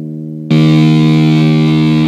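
A sustained electric guitar note played through a noise gate set fully tight and gradually being opened, clean and steady at first, then abruptly jumping into a loud, buzzing distorted tone that holds evenly to the end with no voices.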